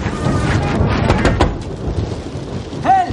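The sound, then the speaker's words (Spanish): Heavy rain pours down on a street in a steady, dense hiss with low rumbling underneath, continuous and loud throughout, with a brief higher tonal whine near the end. “Se levanta de la silla, camina por la calle bajo el aguacero.”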